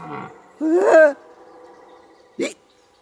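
A red deer stag bells in the rut: one drawn-out, rising and falling roar, then a brief, sharp grunt a moment later, carrying through an otherwise quiet outdoor setting.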